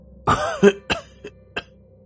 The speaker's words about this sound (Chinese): 烟呛得他一阵咳嗽，一口浓痰泛了上来。